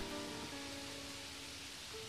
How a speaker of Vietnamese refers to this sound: Những cơn mưa Sài Gòn chợt đến chợt đi Không hề báo trước Có khi tôi đang ngồi thì nghe tiếng mưa dội trên mái tôn xối xả